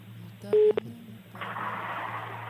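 A short telephone tone sounds twice in quick succession, loud and clear over a low hum, followed by a hissing, crackly phone-line noise.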